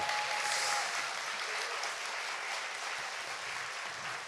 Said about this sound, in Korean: 아, 박수 주세요.